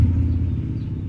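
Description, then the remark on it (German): A motorcycle driving past, heard from a garden: its deep engine rumble drones steadily for about a second, heavy in the low end and easing slightly toward the end, with no voices. “Wir genießen nämlich noch das Wetter und es war ganz so ein Motorrad, was vorbeigefahren ist.”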